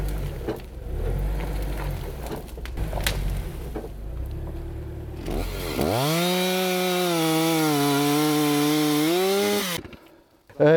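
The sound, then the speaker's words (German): A chainsaw idles roughly, then revs up loudly and holds a steady high-pitched whine as it bites into a tree trunk for several seconds before cutting off abruptly; the cut goes two centimetres too far and the saw blade gets stuck. “Meine Motorsäge, ich habe zwei Zentimeter zu weit geschnitten, das Sägeblatt sitzt fest und nicht ganz fest, aber wir versuchen das jetzt mal irgendwie wieder zu lösen”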